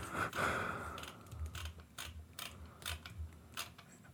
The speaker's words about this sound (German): Er sucht, er, er sucht, er scrollt. Hört man das Scrollen vielleicht?